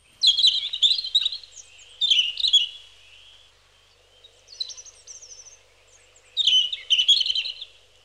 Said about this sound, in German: Ich hoffe es und dabei denke ich an das Rotkehlchen.